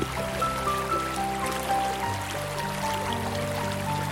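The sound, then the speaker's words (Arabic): Steady flowing stream water rushes continuously for a few seconds, blended with soft sustained musical tones; no one speaks. “أثبتت الدراسات أن الاستماع إلى صوت الماء في الطبيعة كصوت المطر وأمواج البحر وتدفق الشلالات والأنهار يساعدنا على تحسين المزاج ومنحنا حالة من الهدوء والاسترخاء.”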